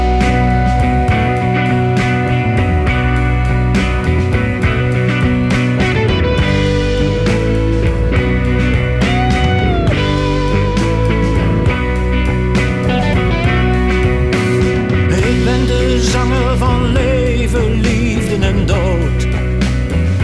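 A song, the opening track of a new album, plays loudly and steadily from start to finish, with dense layered instrumentation and sustained melodic lines, and no one talking over it.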